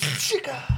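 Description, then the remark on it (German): A single sharp sneeze bursts out with a breathy, hissing rush of air, followed by the start of a low voice. “Gesundheit.”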